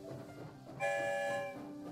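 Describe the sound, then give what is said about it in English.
A train whistles in a single steady, bright blast lasting under a second, over a low rumbling background of rail noise that continues after the whistle stops. “I'm going to give you an early Christmas gift and play an episode for you as soon as the story train arrives back to the station.”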